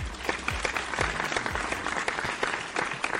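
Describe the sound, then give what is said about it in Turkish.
A crowd applauds steadily, dense overlapping claps filling the whole stretch at a fairly loud, even level, with a few low thumps mixed in and no talk over it. “Hatta bu alkışı da baştan.”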